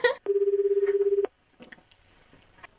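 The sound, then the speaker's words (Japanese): Telephone keypad tones as a phone call is dialed: a brief electronic beep, then a steady, low, buzzing tone that pulses rapidly for about a second and cuts off, followed by faint rustling. “よし、電話しちゃおう。逆電話しちゃおう。”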